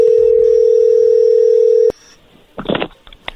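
A steady, loud telephone dial tone hums for about two seconds as a phone call is placed, then cuts off abruptly, followed by a short burst of faint clicking and rustling.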